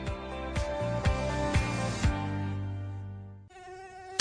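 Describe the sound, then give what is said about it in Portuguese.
A sustained mosquito buzz drones steadily with a whiny, nasal edge, punctuated by four evenly spaced thumps, then briefly shifts pitch near the end. “Mosquito esquisito, sai fora do meu quintal.”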